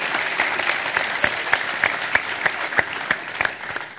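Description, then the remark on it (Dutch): An audience breaks into sustained applause for the editorial team and crew of a show, a dense wash of clapping with sharper individual claps popping out at a steady rhythm, holding at an even, fairly loud level throughout. “We gaan heel veel mensen noemen hoor, dus misschien niet iedere keer klappen, maar de redactie en de crew die verdient wel zeker een applausje, want die ondersteunen ons met meer dan alleen dit.”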